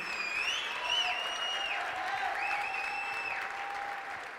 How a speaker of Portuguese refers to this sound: Feliz aniversário! oh, aleluia! Vamos lá, aplauda aí! Feliz aniversário, cumprir!